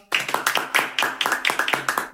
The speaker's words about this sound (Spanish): Un fuerte aplauso, por favor, para nuestra C de cambio.